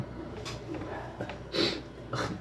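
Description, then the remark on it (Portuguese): A few short, breathy nasal sniffles from a man with the flu, three quick bursts spaced unevenly with quiet between them and no talking. “é, vocês podem de vez em quando escutar uma fungada assim, coisa, mas é que eu tô gripado, tá?”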